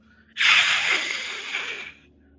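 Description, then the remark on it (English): A person makes a long, breathy hiss with their voice, imitating an angry creature: one sustained, loud burst of airy noise lasting about one and a half seconds, with no speech. “He hisses all around at you.”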